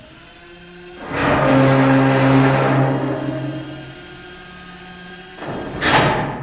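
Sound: door slowly opening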